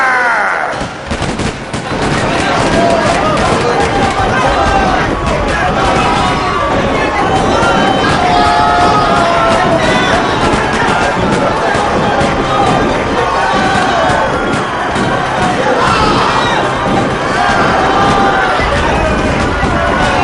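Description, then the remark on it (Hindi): Sharp gunfire crackles over a dense, panicked crowd of unarmed people at a peaceful protest meeting against the British government, fired by General Dyer's troops, with screams and shouting voices running continuously throughout, loud and chaotic as the people flee in a stampede. “और तभी general Dyer अपनी सेना के साथ आ का और निहत्ते लोगों को बरसाने लगा गोलियां फायर”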